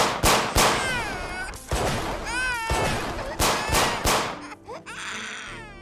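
Several sharp, loud gunshots crack at irregular intervals while a baby cries loudly and continuously between and under the blasts, with a few brief shouts near the end.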